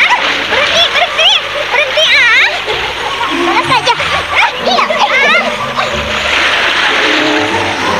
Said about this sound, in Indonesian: Mereka akhirnya riuh dan gaduh di sungai. Mereka saling menciprati air ke wajah mereka.